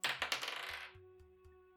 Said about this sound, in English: Uh, why don't you try it? Roll me a d20.